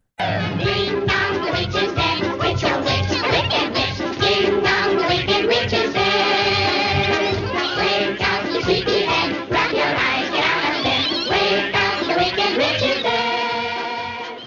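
A chorus of voices sings a bright, bouncy show tune over a full orchestra, loud and continuous throughout, with the slightly muffled, narrow sound of an old film recording.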